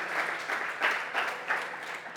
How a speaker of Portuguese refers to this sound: Dá um aplauso a ele aí. O nome dele é Jesus Cristo.